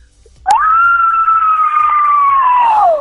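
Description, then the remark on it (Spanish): A voice imitates a zombie scream for International Zombie Pride Day: one loud, sustained, high-pitched wail held steady for over two seconds before dipping slightly at the end, with no talking over it. “¿Nos podría hacer el grito del zombie por el Día Internacional del Orgullo Zombie?”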